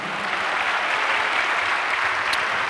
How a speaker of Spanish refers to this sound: Dele un fuerte aplauso a Cristo, amado hermano.